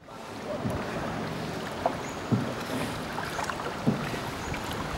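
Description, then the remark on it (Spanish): A guide's boat pole knocks dully against rock a couple of times as he steers the boat along an underground river in a dark cave, over a steady hiss of echoing water, with faint drips falling from the ceiling onto the water. “Se oye el palo con el que conduce la barca apoyándose en la piedra las gotas cayendo del techo sobre el agua y el vuelo de los murciélagos.”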